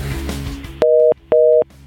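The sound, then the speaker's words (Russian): A telephone busy signal: two loud, steady beeps of equal length with short even gaps, following a brief stretch of muffled noise from the handset being lifted. “Да, вот звони, звони, телефон звонит, я снимаю, ту-ту-ту-ту. Опять кладу трубку.”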